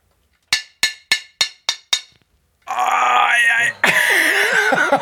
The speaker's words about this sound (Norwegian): Så nå banket du rett og slett en spiker rett inn.